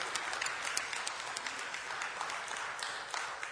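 A crowd applauds steadily, many hands clapping together in a dense, continuous patter that holds at an even, moderate level throughout without anyone speaking.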